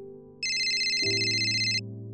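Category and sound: signal or alarm, mobile phone ringtone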